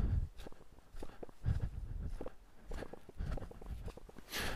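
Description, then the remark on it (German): Footsteps on a narrow forest footpath, a steady walking rhythm of soft thuds with faint scuffing, quiet overall and with no voices. “So, ich gehe noch ein paar Schritte und dann muss ich einmal verschnaufen.”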